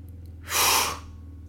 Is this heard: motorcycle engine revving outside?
no